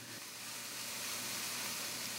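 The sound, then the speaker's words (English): Fennel-seasoned pork sausage sizzles steadily in a frying pan in a kitchen, a continuous soft crackling hiss that holds at an even, fairly quiet level with no voices. “Back in Sonny's kitchen, as the smell of fennel and frying pork filled the air”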